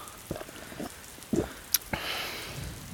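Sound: rain falling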